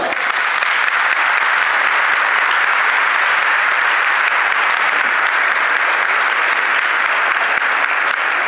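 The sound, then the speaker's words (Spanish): Loud, sustained applause from an audience welcoming the priest Father Ramiro Sáenz, a dense wash of many hands clapping at once, steady and undiminished for the full length with no voices standing out. “Y recibimos con un fuerte aplauso al Padre Ramiro Sáenz.”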